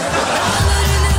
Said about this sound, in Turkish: Sabahtan akşama kadar arkadan gülme sesi geliyor demiş. E, kahkaha efekti efendim